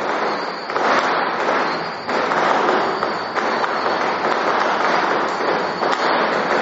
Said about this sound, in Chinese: 这个一直在放鞭炮，我们就让他庆祝。